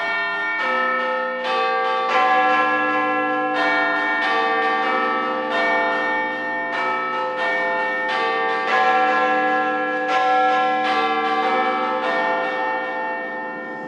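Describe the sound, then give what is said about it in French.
The 9 p.m. carillon of radio station Pulsar on 95.9: church bells chime a slow melody, each struck tone ringing out and overlapping the next in a steady, resonant carillon that carries on at full volume throughout, with no voices. “Et le carillon est là”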